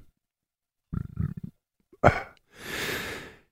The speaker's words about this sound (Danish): Øh, undskyld, jeg skal lige rømme mig.